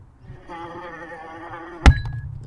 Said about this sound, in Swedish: Svaret är en fluga.